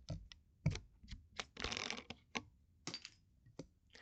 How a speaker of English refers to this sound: Uh, that was the clatter of it hitting my paintbrush and then my ashtray and then my paintbrush again and landing on an empty bag of holy basil tea.